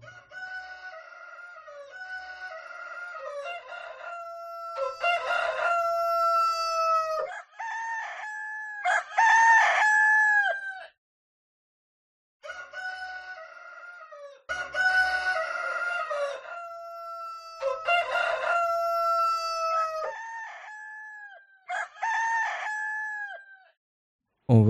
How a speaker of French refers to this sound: Bonjour, je vous amène en voyage à Mayotte. On se fait réveiller par le chant de coq